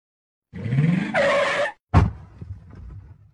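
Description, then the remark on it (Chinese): A speeding small car on a street brakes hard, nearly failing to stop, with a long, rising tire screech lasting about a second, then a harsher squeal, followed by a sharp thud and a fading rumble of the engine. “好像是一个汽车急刹车的声音。”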